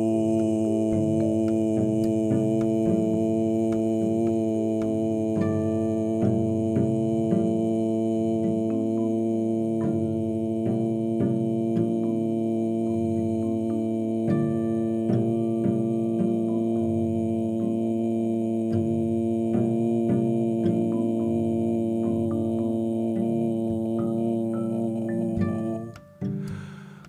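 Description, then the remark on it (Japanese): A single voice, after a full breath, imitates a low, flat buzzer as a vocal exercise, holding one steady droning tone for nearly half a minute without a break before it abruptly cuts off near the end. “例えばいっぱい息を吸って無機質なブザーのように音を鳴らし続けるのです高さは低めがいいでしょうこんな感じせーのボー”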